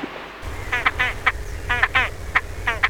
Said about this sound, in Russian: А вот и нет, это чомга, водоплавающая птица, которую действительно путают с уткой. Но чомга не утка, и эта красавица частенько бывает на Ижевском пруду.